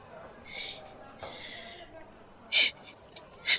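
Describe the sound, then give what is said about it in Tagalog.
A woman crying in breathy sobs, with several sharp, shaky gasping inhalations coming in uneven bursts and no words spoken. “Uy, teka. Bakit ka umiiyak?”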